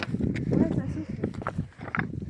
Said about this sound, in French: un vent frais.